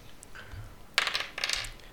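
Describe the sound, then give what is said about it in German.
A ten-sided die (D10) clatters across a hard tabletop in two quick bursts of bright, rattling clicks, with no talking over it, rolled in a tabletop role-playing game to regain life with a fighter's Second Wind. “Das ist dieser Würfel hier.”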